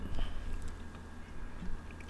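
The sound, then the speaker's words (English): Quiet sipping of a fizzy ginger ale, with small wet mouth sounds and a soft swallow over about two seconds, no talking. “as I take a sip of ginger ale.”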